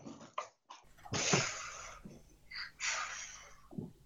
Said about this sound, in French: Tu veux souffler la bougie Tiens, souffle. Pas trop fort.